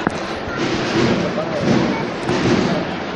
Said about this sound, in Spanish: Sigue andando el paso de misterio con el sonido del tambor. Un paso de misterio escoltado por cuatro miembros de, de la Guardia Civil, uno en cada esquina.